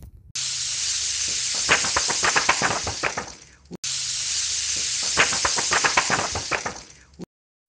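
Steady rain hisses, with a flurry of sharper drops pattering through the middle. The same short stretch plays twice with a brief break between, and no voices.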